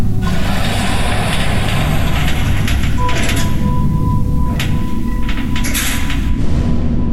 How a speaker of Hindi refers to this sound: अभी वो अपने फ्लैट के ठीक सामने पहुंचकर दरवाजा खोलने को हुई ही थी कि तभी ठीक चार कदम की दूरी पर लिफ्ट का दरवाजा अपने आप खुला